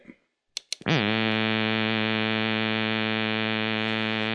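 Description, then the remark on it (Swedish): After a couple of brief clicks, a loud, steady synthetic buzz starts with a quick pitch swoop and holds flat. It's a raw, harsh, reedy tone rich in harmonics, with no vowel-like colour, and no voices: the Madde synthesizer's pulsating glottal airflow without a vocal tract. “Nu ska vi höra hur Madde låter utan ansatsrör, eh, det vill säga eh, det ljud som kommer ur det puls, från det pulserande luftflödet genom stämbandspringan.”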